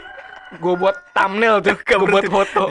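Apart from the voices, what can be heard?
rooster crowing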